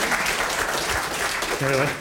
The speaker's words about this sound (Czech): Takže ano, takže, ano pod, zatleskejte nám.